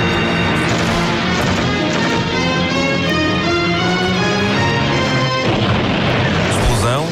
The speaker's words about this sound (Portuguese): aponta a sua metralhadora para o barquito de Chuck, dispara, vemos o barco em super câmara lenta ir pelo ar